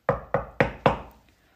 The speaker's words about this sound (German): Es klopfte an der Tür und rief